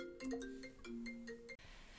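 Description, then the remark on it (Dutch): A melodic phone ringtone, playing through a computer connected to the phone, plays a quick sequence of bright tonal notes, clear and fairly loud, then cuts off abruptly after about a second and a half, leaving quiet background noise. “ik word nu even gebeld”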